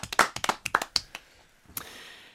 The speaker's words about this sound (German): Aber dennoch Applaus für die große Runde. Die hat toll gespielt.